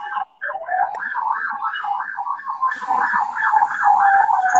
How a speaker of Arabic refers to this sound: انا مش سامعاكي انا سامعه ويت ويت آه، تمام اه ده في تقريبا بوليس معدي تحت البيت